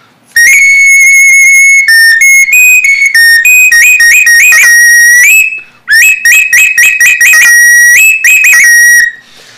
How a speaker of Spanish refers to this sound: También de igual manera tenemos otro tipo de mm, ocarina, Ocarina, que la palabra ocarina viene de oxli, de tierra, y, ni viene a hacer este su sonido.